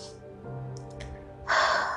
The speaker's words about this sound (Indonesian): oke gue ambil nafas dulu